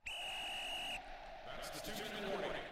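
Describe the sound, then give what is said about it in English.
A single steady, high-pitched whistle blast rings out loud for about a second, then stops abruptly, leaving a murmur of background voices and noise. “You heard that whistle. It means we're nearing the finish line.”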